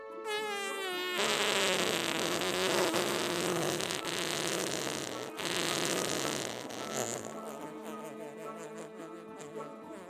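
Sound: fart sound effect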